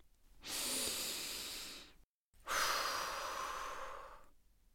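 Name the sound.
deep rhythmic breathing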